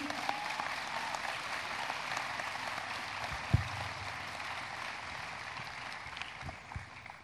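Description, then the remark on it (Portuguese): Sustained audience applause fills the whole stretch, a dense, steady wash of clapping from a sizable crowd at moderate loudness, with one brief louder thump midway. “Uma salva de palmas para o”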